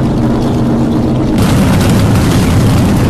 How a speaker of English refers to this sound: Well, they're starting up. All the Trans Am cars are making a lot of noise, getting ready to get out of the track.